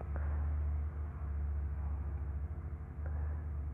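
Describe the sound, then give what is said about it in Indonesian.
A motorcycle engine rumbles outside, a steady low drone that wavers slightly in pitch and level throughout, with no one speaking. “oh ada suara motor sorry kalau misalkan berisik”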